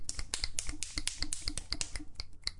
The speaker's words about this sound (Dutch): Nee, vingers knippen.